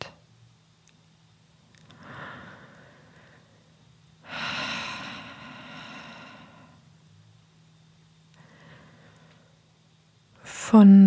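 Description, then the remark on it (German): Three slow, deep breaths drawn and released audibly, the middle one longest and loudest, with quiet pauses between them over a faint steady low hum; no one speaks. “Atmet hörbar, damit ihr sehr genau spürt, dass ihr nicht allein seid.”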